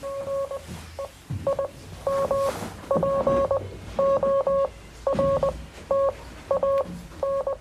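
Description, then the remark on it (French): Morse code beeping from radio equipment at a switchboard operator's post: clear electronic tones keyed in short and longer bursts with brief gaps, steady and fairly loud, over a faint low rumble and no talking. “Ici, vous pouvez voir, elle a des systèmes de radio, elle a des systèmes de morse. D'ailleurs, si vous écoutez,”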